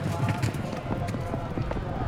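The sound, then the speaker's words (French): Rapid, rhythmic hoofbeats of a galloping horse during a horse race pound steadily over a dense, noisy background, with low thuds repeating several times a second throughout. “Elle atteint finalement la barrière de sécurité et sans réfléchir se jette sous les sabots du cheval qui court pour le roi.”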